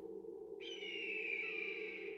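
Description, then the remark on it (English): A hawk's thin, high cry sets in partway through and holds steady to the end, moderately clear above a low, constant background hum with no talking, over a silent crowd in a plaza. “We can hear the hawks.”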